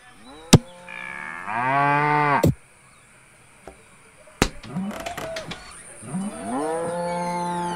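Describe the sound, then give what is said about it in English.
Cattle moo loudly and repeatedly, long drawn-out bellows with sharp cracks and knocks between them, the herd sounding agitated. “There's something after those cattle.”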